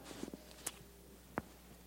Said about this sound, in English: Boy, I like to hear these pages turn.